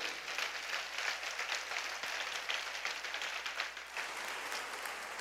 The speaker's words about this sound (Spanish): ¿Te alegras por esta palabra? Dale palmas al rey, por favor. Apláudele fuerte.